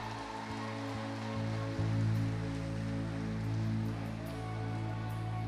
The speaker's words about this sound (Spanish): Denme un fuerte aplauso los hombres y las mujeres. Así esa grita, papá.